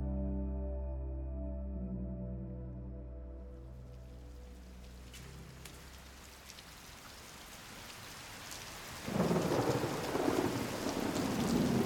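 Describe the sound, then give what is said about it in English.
Steady rain falls in Manchester with a deep rolling rumble of thunder at the start, then the downpour suddenly grows louder and heavier near the end. No voices. “Usually when there's something missing from the food delivery and it's raining, Manchester's always been a rainy city”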